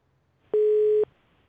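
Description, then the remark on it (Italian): A single steady telephone busy-tone beep, about half a second long, a flat mid-pitched hum that starts and stops abruptly against near silence, with no talking, heard after a listener's phone call to a radio programme dropped. “No, è caduta la telefonata.”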